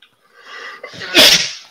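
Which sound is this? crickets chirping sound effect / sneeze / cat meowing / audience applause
sneeze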